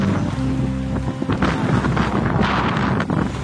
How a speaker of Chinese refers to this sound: 我们来到了红海，这边的风很大，可以听到呜各种各样的风声。